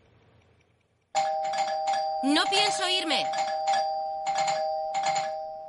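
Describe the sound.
A doorbell in a scene from Breaking Bad, rung by Skyler, rings over and over in quick repeated bursts, loud, its steady tone sustained underneath while a person speaks briefly partway through.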